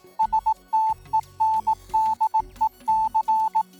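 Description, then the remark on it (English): Morse code beeps in a steady high tone spelling out STENDEC, a quick run of short dots and longer dashes over a low, rumbling background hum, with no voices. “For instance, losing the first two dots of STENDEC and adding a space creates another probable message ETA late.”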